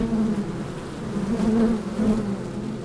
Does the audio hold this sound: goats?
no